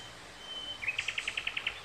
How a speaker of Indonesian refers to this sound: Burung.